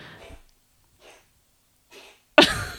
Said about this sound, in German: Falls ihr das hört, ist es unsere Katze, die wahrscheinlich gerade auf irgendeinen, auf unseren senfgelben Teppich kotzt. Nee, sie kotzt vom Stuhl.